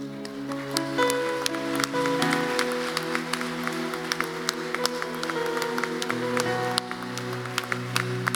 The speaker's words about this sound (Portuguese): Se você viu alguém fazer essa oração, dá um abraço nessa pessoa enquanto a gente aplaude o Senhor, igreja.